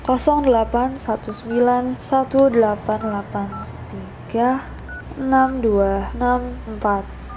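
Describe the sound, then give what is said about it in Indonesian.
A voice hums a quick run of short, pitched beeps, imitating the tones of a telephone number being dialed, clear over a faint low hum. “udah mau Halloween why not kita telepon si kangen”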